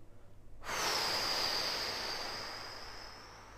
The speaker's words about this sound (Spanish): Entonces, cogemos aire por la nariz. Aguantamos uno, dos, tres, cuatro, y soltamos por la boca fuerte, soplando.